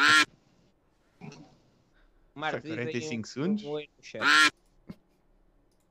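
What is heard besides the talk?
duck quacking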